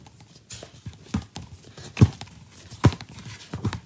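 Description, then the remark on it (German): Pages of a thick photobook being flipped: a series of quick papery flaps and rustles at a loose, uneven rhythm, with a few sharper snaps standing out and no talking. “Hier zum Beispiel, wenn ich jetzt mal mache, das ist der Sound.”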